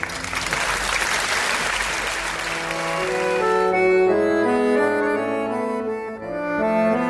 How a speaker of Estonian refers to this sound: tere kõigile, aplaus alustab,